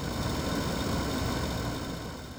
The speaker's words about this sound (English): We tied up at the steamboat wharf and heard the hum of the island generator.